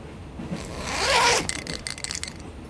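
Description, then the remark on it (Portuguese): A backpack zipper, on a backpack holding a change of clothes and three spray paint cans, is pulled open in one long rising rasp that swells and peaks midway, followed by a few shorter ratcheting zip strokes before trailing off. No one speaks. “Ah, um príncipe com delírios e uma mochila nas costas.”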